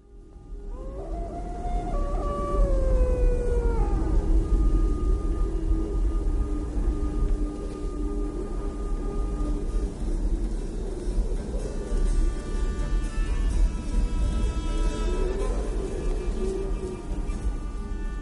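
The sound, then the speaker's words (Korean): A mournful melody plays alone over a low rumbling drone, with wavering, sliding tones rising and falling like a sustained wind instrument or voice, steady and moderately loud throughout. It is the ending melody of A Time for Drunken Horses, the 2004 Iranian film by director Bahman Ghobadi. “그럼 이 영화의 어, 엔딩 멜로디를 듣고 올게요.”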